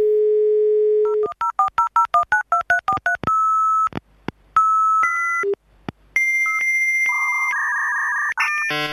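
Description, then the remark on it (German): A steady American phone dial tone hums for about a second, then a quick run of touch-tone dialing beeps, followed by shifting electronic modem tones and screeches. No one speaks. “Ich wollte das deutsche Freizeichen haben. Verdammt. Nur Amerik Am Amikram.”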